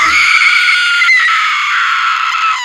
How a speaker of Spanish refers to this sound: Los lugareños dejan correr la historia donde una figura femenina aparece por el lugar profiriendo alaridos y gritos.